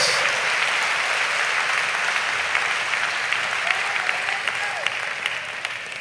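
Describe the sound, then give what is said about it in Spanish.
An audience claps together during a church sermon, as applause to the Lord: sustained, dense applause, a steady loud wash of hand claps with a few sharper claps poking out, gradually tapering slightly toward the end. “dale un aplauso al Señor, al Rey del Rey, al Señor de los Señores.”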